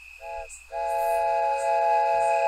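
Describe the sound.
A voice mimics an ominous, evil train horn: a brief blast, a short pause, then a long, steady, droning wail, loud with no other talking.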